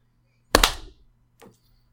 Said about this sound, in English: Okay. Let's clap. Okay. One, um, two, three.